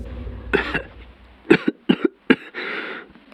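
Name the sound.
cough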